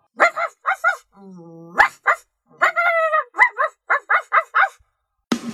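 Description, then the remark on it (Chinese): The puppy Rolf barks at people on the street in quick, high-pitched bursts of two or three, broken by a drawn-out whining yelp partway through, then a steady run of sharp, excited yaps. “他到处追着猫猫狗狗，踩烂了花花草草，还对着路上的人们大叫。”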